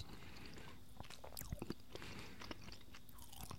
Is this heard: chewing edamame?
yes